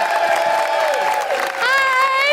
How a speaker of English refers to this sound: Then put your hands together and make big woohooing noises for the wonderful Alison Spittle!